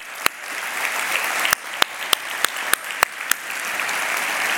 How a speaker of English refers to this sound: So, for those who may be considering being baptized, for those who are getting baptized, can we put our hands together for that celebration, real quick? Come on. That's right.